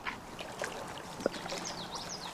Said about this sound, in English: It's a very bizarre feeling. As we push our way through the river's current, it feels like we're moving in slow motion.